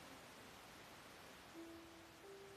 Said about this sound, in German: Und das Rauschen muss ich nochmal sehen. Hm. Ich habe so ein komisches Headset, so ein China-Ding